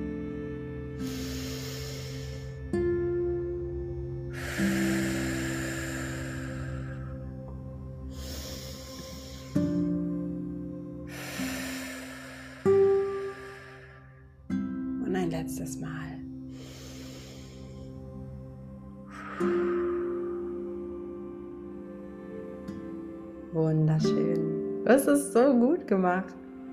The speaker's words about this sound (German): Und dann atmen wir jetzt einfach nochmal dreimal zusammen tief ein und aus.